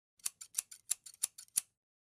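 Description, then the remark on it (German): A quick run of about ten crisp scissors snips, sharp and bright, in an uneven rhythm over roughly a second and a half, with no voices: a scissors sound effect marking a cut in a recording of a Bad Kreuznach city council meeting of 12 December 2019. “Ertönt der Scherenton.”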